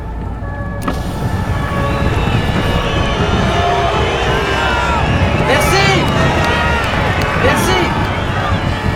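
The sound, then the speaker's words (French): A loud, dense crowd roars continuously, whistling and jeering at a passing car, with shrill whistles and rising shouts piercing the din, the jeering steady throughout. “Tu sais ce que je préfère Quoi Tous ces connards qui me sifflent.”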